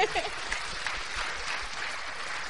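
Steady audience applause fills the whole stretch, a dense, continuous patter of many hands clapping at a fairly even level, with no voices standing out.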